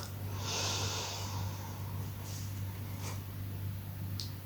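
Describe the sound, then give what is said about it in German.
A single long, deep breath drawn in through the nose during a breathing exercise, an airy hiss near the start that fades out, followed by faint small breath sounds over a steady low hum. “Ich mache jetzt mit, du hörst mich nur noch.”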